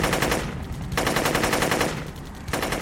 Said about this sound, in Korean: 이제는 기총 사격이 시작된 모양이었어.